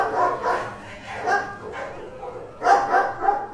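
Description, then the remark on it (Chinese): Several dogs bark over and over in uneven bursts, the barks overlapping and mid-pitched, with a brief lull in the middle before another loud cluster of barking. “只有狗，依然在叫个不停。”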